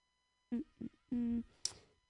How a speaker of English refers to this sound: This is me humming into the microphone so everyone at home listening on the radio knows I didn't die, I didn't drop dead.